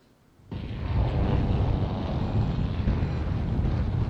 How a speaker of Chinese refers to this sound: 在天上会有呼，你听，呼呼的风声，这就是在天上操作的这个感觉。